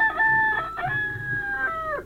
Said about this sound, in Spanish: Entró un gallo que se paró delante de toda la gente